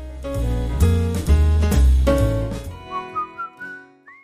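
Full-band pop music plays on a radio show with heavy bass, then drops away to a run of short whistled notes stepping upward, ending in a higher gliding whistle, clear with no voices.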